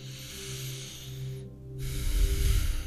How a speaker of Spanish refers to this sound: Ahora lo que vamos a hacer es llevar el espacio al interior. Toma una respiración profunda otra vez.